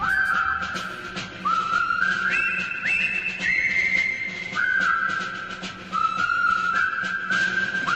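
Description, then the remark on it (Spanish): A person whistles a wandering tune, long sustained tones sliding up and down with short breaks between phrases, clear, with no talking. “y silbando, silbando, empezó a estudiar filosofía en una universidad de Florida, cuando ya era un reconocido asaltador de sistemas.”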